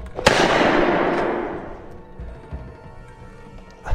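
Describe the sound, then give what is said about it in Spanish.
A single sharp gunshot from Tompkins' pistol cracks loudly as Leiper fires his second and last bullet at Harp, then a long rumbling echo slowly fades away over several seconds, with a few faint thumps underneath. “Entonces, utilizando la pistola de Tompkins, Leiper disparó su segunda y última bala hacia Harp.”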